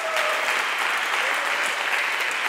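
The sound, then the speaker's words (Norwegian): An audience applauding steadily, a dense, continuous wash of many hands clapping at an even loudness throughout, with no voices standing out. “La oss alle gi dem en skikkelig, skikkelig applaus!”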